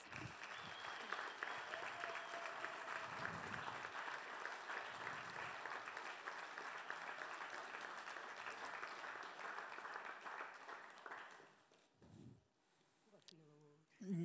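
An audience claps together in a steady, dense wash of applause lasting about eleven seconds, then it fades out and a voice begins speaking over the dying claps.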